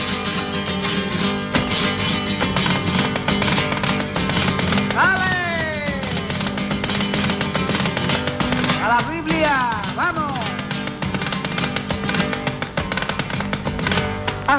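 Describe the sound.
A flamenco sevillana, a biblical sevillana, sung by a solo voice with sweeping, ornamented melismatic phrases over a dense, steady accompaniment, sounding like an older, somewhat noisy recording at moderate loudness.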